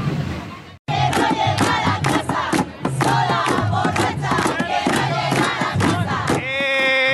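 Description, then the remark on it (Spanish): A large crowd chants and shouts in unison at a street demonstration, voices loud and rhythmic, with repeated rising slogans and a brief pause near the start before the chanting resumes. “Se aprende de todo ¿eh? en una manifestación.”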